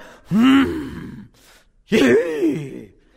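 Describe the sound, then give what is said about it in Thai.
A man imitates the fearsome breathing of a war horse with two loud, breathy, voiced exhalations, separated by a short pause, each rising and falling in pitch. “เสียงหายใจของมัน น่าสะพึงกลัว ผมทำเสียงแบบม้าไม่เป็น”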